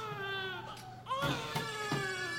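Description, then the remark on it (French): Babies cry continuously in a maternity ward, long wavering wails that swell louder after a moment, with a few sharp bursts breaking through. No one speaks. “On ne voit aucune maman on n'entend que les cris des bébés, on est hyper seul.”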